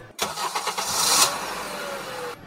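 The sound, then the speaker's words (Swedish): A car engine cranks with a quick series of rhythmic pulses, then catches and settles into a steady, fairly loud running rumble before cutting off abruptly. “Ni åker in i den här buggen, el, den elbilen mm -hmm.”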